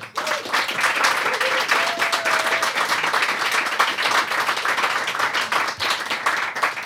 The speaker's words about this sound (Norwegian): Og jeg vil eh, strekke meg så langt og si at vi har fått storfint besøk her i dag. Gi en god applaus